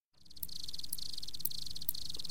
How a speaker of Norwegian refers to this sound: Men jeg tenker kanskje før, bare for å forberede oss litt mentalt, kanskje vi bare skal høre på lyden av sirisser?